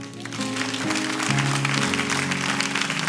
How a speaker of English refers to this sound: In the name of Jesus, we thank you for your help. Clap your hands, please, and say amen.